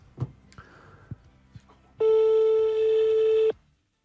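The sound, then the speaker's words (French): A telephone ringback tone sounds once on an outgoing call to a furniture and bedding store: a loud, steady beep lasting about a second and a half, preceded by a few soft handling clicks and quiet background noise. “Mais non, parce que ça continue de sonner après.”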